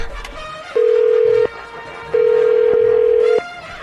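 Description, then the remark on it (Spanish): A telephone ringing tone on a call being placed: two long, steady mid-pitched beeps, the second longer than the first, separated by a short pause, with faint background noise and no talking. “Marcando.”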